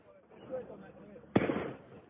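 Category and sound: firework mortar shots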